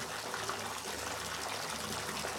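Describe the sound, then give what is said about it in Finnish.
A steady rush of water fills a bathtub, a continuous splashing hiss that holds even for the whole moment as bath salt is poured in. No one speaks. “Joten kaadoin kylpysuolan ammeeseen. Sekoitin vettä ja tuota pikaa amme oli täynnä monen kirjavissa väreissä kimmeltäviä vaahtokuplia.”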